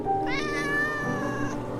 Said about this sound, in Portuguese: Você percebe o seguinte: na hora que você ataca o Jamal, você escuta um miado vindo atrás de você. E um gatinho doente, roxinho, você vê que aquele gato preto está tentando lutar, tentando se esquivar, tentando sair.